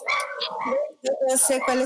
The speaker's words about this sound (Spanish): Ya me callo porque están mis perros ladrando.